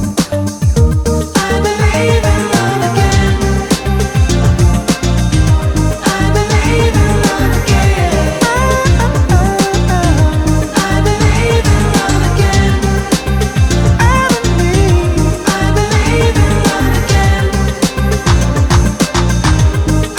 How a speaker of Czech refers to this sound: napsal nový text a vytvořil neuvěřitelný kytarový riff. Jo. A je to, vole, stejně taneční věc, jako je ten remix, který jsme si pouštěli před chvilkou